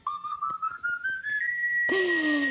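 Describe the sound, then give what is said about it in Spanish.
A street knife sharpener's pan-pipe whistle, as heard passing through neighbourhoods: a clear tone glides slowly upward, then a brighter second phrase sweeps back down, with faint rhythmic knocks underneath and no talking. “¿Qué te recuerda eso, Jaime? Oye, el afilador de cuchillos que pasaba por nuestros barrios, ¿no es cierto?”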